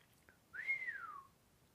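A single whistle through the teeth, rising quickly then sliding slowly downward in pitch, close and clear, lasting under a second against a quiet background.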